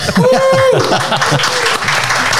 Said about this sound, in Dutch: Ik wou zeggen, eh, ik, ik, geef hem even een applaus.